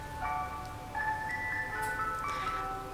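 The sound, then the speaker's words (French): A tinkling ice cream truck jingle plays alone, its bright, steady melody of sustained notes looping over a low background rumble, with no voices present. “Alors, à présent, méfiez-vous si vous entendez cette musique.”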